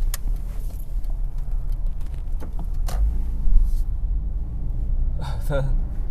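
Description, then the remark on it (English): A stopped car's low engine rumble drones steadily nearby for several seconds, with a brief swell in the middle, while faint voices and short clicks come and go over it. “There's a fucking car stopped.”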